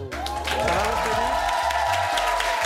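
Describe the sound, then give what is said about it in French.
A studio audience on the set of Clique on Canal Plus bursts into loud, sustained applause for Daniel Auteuil, a dense wash of clapping with scattered cheers and whoops rising through it, steady for the whole stretch. “Et avec nous, un tonnerre d'applaudissements pour le boss, Daniel Auteuil.”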